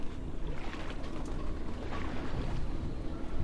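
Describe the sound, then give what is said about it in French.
Waves slap and crash against the right side of a boat's hull in a steady, dense wash of water noise, fairly loud, with no voices. “Entendant les vagues se fracasser contre le flanc droit du bateau, je me réveille parfois”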